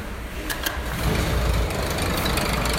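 Doors into a greenhouse for a banana-growing trial opening after a pass card is used: two quick clicks at the start, then a steady low mechanical rumble and whir that swells slightly and holds for a few seconds. No one speaks.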